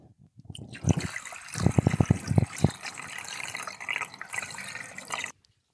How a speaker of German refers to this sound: Jakob ist jetzt gerade noch hier dabei, sein Aquarium wieder aufzufüllen. Diese Gießkanne ist jetzt mittlerweile auch leer.